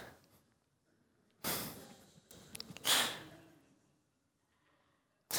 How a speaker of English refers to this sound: These are the kinds of things that make us gasp and shout, kind of like this.